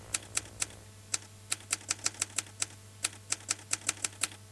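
Crisp typewriter keys clack in quick, rhythmic bursts, about twenty sharp strikes, in an arrangement played on a Bohm 280CT organ, over a steady, low sustained organ drone with no voices.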